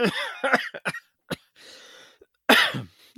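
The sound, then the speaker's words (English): A man coughs in harsh, sputtering bursts as if choking, with a strained wheezing gasp in the middle and another loud hacking cough at the end, loud with no talking. “I think …, you just almost choked to death because you didn't believe what I was saying”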